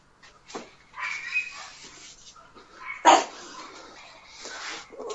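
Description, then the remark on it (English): A dog whimpers and whines in uneven bursts, then lets out one sharp, loud bark before whining again, with no one talking. “What, you didn't give birth to this demon spawn of a dog?”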